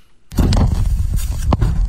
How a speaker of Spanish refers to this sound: Ahí está pateando el carro, güey.